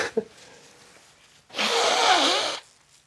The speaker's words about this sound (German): Entschuldigung, ich muss meine Nase putzen.